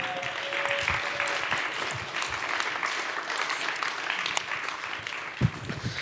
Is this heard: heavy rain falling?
no